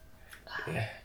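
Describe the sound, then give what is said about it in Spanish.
Glasses of Argentine wine from Mendoza clink together in a toast, leaving a bright, sustained ringing tone that hangs in the air, with a voice murmuring softly underneath. “como de, Como de cuenco tibetano.”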